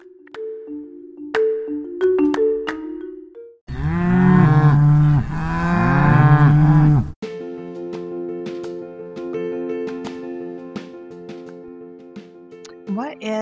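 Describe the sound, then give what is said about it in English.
A loud, drawn-out cow moo, rising and falling in pitch, sits between stretches of steady musical-sounding tones. The moo is close and prominent, lasting a few seconds. “A sound bite is like the little piggies like oinking or the minion or the cow noises.”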